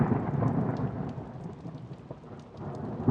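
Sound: thunderstorm with heavy rain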